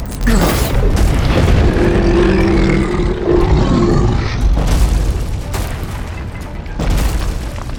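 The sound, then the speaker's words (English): A loud, sustained lightning strike effect of a bolt of lightning from the blade of the sword Hopebinder: a deep booming rumble with sharp crackling bursts punctuating it over several seconds, no voices. “a spark snapped for a moment, followed by a bolt of lightning manifested from the blade.”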